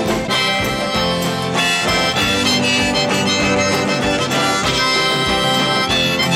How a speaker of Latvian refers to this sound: Iespējams, tu kādreiz esi dzirdējis šo dziesmu. Tā skan šādi.